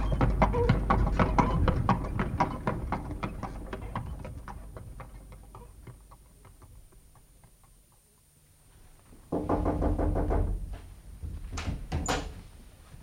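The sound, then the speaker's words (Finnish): Horses' hooves clip-clop in a steady, busy rhythm as they pull a mail coach, gradually fading, going nearly quiet, then returning loudly near the end with some sharper knocks. “Toivoisinpä, että nämä hevoset olisivat olleet kolmisen kuukautta Fleetin vankilassa.”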